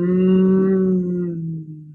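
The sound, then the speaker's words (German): A person warming up the voice with a hand on the chest hums one long, low, steady tone for about two seconds, fairly loud, with a warm, cow-like lowing quality that sags slightly in pitch as it fades. “So, wenn wir dann so ein bisschen die Stimme aufwärmen wollen, dann könnt ihr die, die Hand auf den Brustkorb legen und so ganz leicht, das klingt, man klingt so ein bisschen wie eine Kuh”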